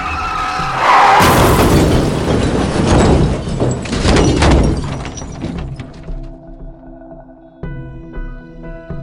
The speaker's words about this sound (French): le golfeur distingue alors à peine quatre lumières de phare arrivées face à lui. Un bus est en train de dépasser un camion. Manœuvre insensée dans ce brouillard. La collision est inévitable.